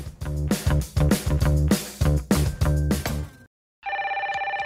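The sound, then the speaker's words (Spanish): A telephone rings loudly with rapid, clattering bell bursts for several seconds, then after a short pause a steady, warbling electronic ring begins. No one speaks. “¡Momentito, no cuelguen! ¿Aló?”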